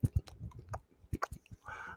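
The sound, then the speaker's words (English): ASMR-style crunchy chewing of lettuce right against the microphone: a quick irregular run of wet crackles and bites, ending in a brief breathy rustle. “ASMR is when you're like, I'm chewing lettuce”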